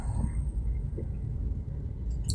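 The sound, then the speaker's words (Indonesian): Steady low rumble inside a car driving home from the office, with engine drone and road noise filling the space evenly throughout, moderately loud and unbroken, with no voices present. “Sebelumnya saya mohon maaf jika ada suara berisik di sepanjang podcast ini karena saya merekam ini di dalam mobil dalam perjalanan pulang dari kantor.”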